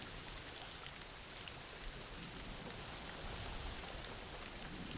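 Steady rain falls throughout, a dense, even hiss of drops pattering on a surface with no pauses, soft but continuous, and no voices.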